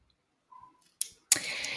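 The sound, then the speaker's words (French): A ballpoint pen clicks sharply twice, the second click followed by a brief burst of rustling handling noise. No one speaks. “Je joue beaucoup avec mon stylo, j'espère que sur le podcast, ça vous allez me tuer.”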